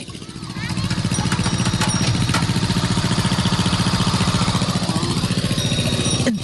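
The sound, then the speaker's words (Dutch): A small tractor engine chugs at a steady, rapid putter as it tows the Linschoten Express, a little train of oil-drum carts each with its own steering wheel, across a campsite; loud and continuous throughout with a faint rattling layered over the motor. “Een treintje met oliedrums met allemaal een eigen stuurtje. En dat, en dat rijdt hier gewoon over de camping.”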